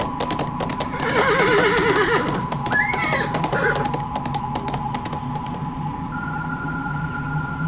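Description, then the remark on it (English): A horse being driven lets out a shrill, quavering whinny, loud, as it shies and trembles in terror with its ears laid back, over a steady clatter of hoofbeats and a faint constant hum, then the hooves fade as the neigh ends. “I drove faster, the horse blinking and shying and trembling all the while his ears laid back in abject terror.”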